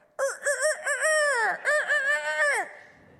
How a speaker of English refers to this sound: when it rang, it sounded like a rooster crowing